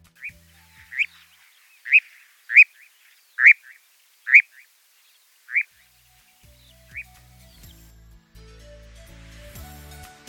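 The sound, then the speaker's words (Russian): An audio recording of a nightjar calling in a run of about eight sharp, evenly spaced notes that gradually weaken and stop, leaving faint low background rumble. “Ну, вот как-то так это звучит, согласитесь, что довольно э, необычно, неожиданно, так что теперь вы из нашей программы еще и знаете, как звучат птицы Казадой.”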